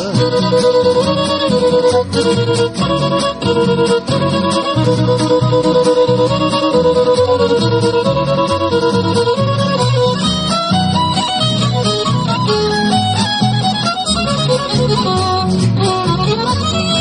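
A huapango song from a folk trio, with bright plucked and bowed strings keeping a lively, steady rhythm, played loud without pause throughout.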